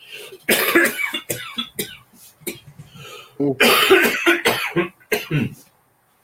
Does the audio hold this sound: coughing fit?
yes